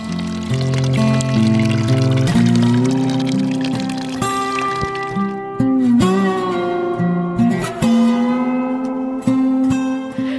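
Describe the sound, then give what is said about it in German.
Spring water pours steadily and loudly from a pipe coming out of a wall into a hollowed-out tree-trunk trough, a continuous splashing rush with hollow, ringing resonant tones running through it the whole time. “Es kommt ein Rohr aus der Wand und man würde eigentlich direkt das Wasser trinken wollen.”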